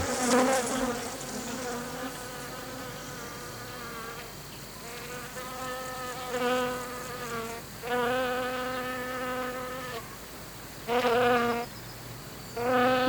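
Bees buzzing steadily, a droning hum that shifts in pitch and swells louder in several short bursts as they pass, with no voices.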